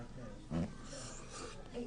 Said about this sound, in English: and it's spicy food, so you're gonna hear us do it, sniffing